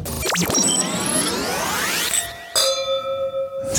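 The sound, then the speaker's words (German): A drink is poured to refill an empty glass, rising steadily in pitch as it fills, then a bright glass clink rings out clearly and slowly fades. No one speaks. “ist dein Glas etwa schon wieder leer sein.”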